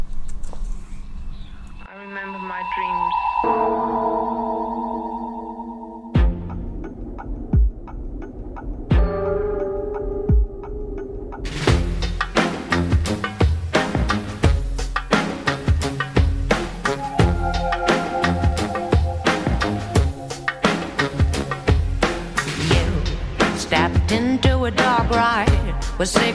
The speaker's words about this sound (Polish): mamy dla niego utwór mm, holenderskiej artystki …, …